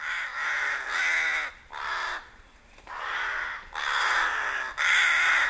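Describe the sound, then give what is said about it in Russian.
A rook caws repeatedly, a run of about six harsh, raspy calls with brief gaps between them, loud, with no voices. “Грачи тоже частые жители городов и поселков.”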